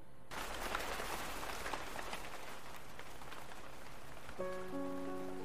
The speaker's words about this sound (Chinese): 雨打亭童碎，一帘风清凉。佳梦尚未醒，渺渺似故乡。半梦半醒之时，又闻窗外雨急。